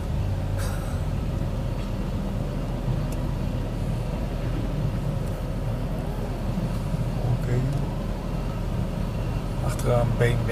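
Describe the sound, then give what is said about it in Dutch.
A busy car wash on a Sunday, with many people washing their cars, hums with a steady, loud low rumble of machinery and idling engines, with faint voices and occasional brief clanks mixed into the continuous noise. “Het is echt heel erg druk. Maar ja, het is zondag. Dus iedereen gaat natuurlijk auto wassen.”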